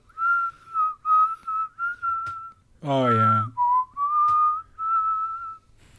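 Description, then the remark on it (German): Someone whistles a western film harmonica melody: a series of clear, mid-pitched held notes with slight bends and short gaps, briefly interrupted by a spoken interjection midway. “Das kann man nicht wirklich summen, oder? Es ist, auf der Mundharmonika.”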